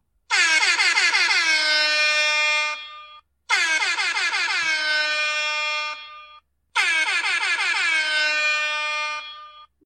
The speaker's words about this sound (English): You are now sworn in members of the Neighborhood Watch. Let's sound those air horns to make it official.